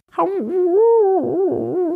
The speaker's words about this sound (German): Ein mitleiderregendes Jaulen reißt mich aus meinen Erzählungen